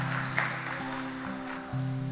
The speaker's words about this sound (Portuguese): Nossa Senhora, ouve ou não ouve? Uma salva de palmas para Nossa Senhora.